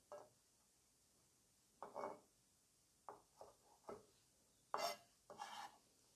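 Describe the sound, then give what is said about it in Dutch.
A knife chops chives on a cutting board in short irregular bursts of quick taps separated by brief pauses, with no one talking. “Nou, even de bieslook een beetje klein snijden.”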